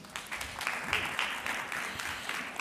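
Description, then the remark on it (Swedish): Steady, warm applause from a crowd welcoming a guest, a dense wash of clapping that holds at an even, fairly loud level throughout, with a brief voice or whoop rising through it. “Vi ger honom en varm applåd.”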